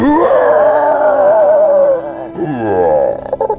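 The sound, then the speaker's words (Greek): A person gives a loud, sustained vocal cry, a strained wavering yell imitating a war cry, which drops off and then resumes in a second rising burst ending in short choppy pulses. “Ο αρχηγό έφερε 11. Κάνει την κραυγή αυτή.”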